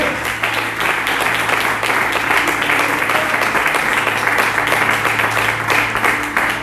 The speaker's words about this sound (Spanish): Cuando dicen amén en esta mañana, aleluya y le vas a aplaudir, de fuerte.